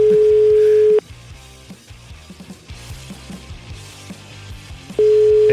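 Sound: telephone busy tone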